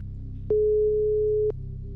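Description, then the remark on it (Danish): A telephone ringback tone on an outgoing call to film director Kieran Cassidy: a single steady, moderately loud one-second beep, starting and stopping with soft clicks, over a low constant line hum. “Jeg ringer til Kieran Cassidy, som er filminstruktør.”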